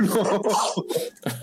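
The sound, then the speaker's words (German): A loud sneeze followed by a couple of short, breathy bursts, with no talking over it. “Gesundheit, ….”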